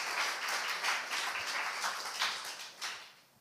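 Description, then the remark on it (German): An audience applauds to welcome a guest speaker, a steady wash of many hands clapping at once with brief swells, holding at a moderate level before thinning out and fading at the end. No one speaks over it. “Und deswegen würde ich sagen, dürfen wir nochmal einen Applaus geben und freuen uns auf die Zeit mit dir.”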